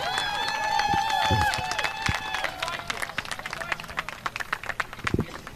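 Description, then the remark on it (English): A large outdoor crowd at a race track's Victory Lane claps steadily for a feature race winner climbing out of his race car, with dense overlapping applause and a few loud whoops and cheers rising near the start, then thinning into scattered claps toward the end. “How about another big hand for the crusher”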